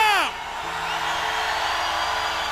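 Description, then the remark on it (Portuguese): A church audience shouts loudly together, a dense, sustained roar of many voices that follows a single voice's brief falling whoop at the start. “Grita, amada igreja!”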